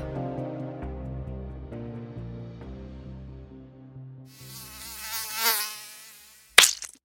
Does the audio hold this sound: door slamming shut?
no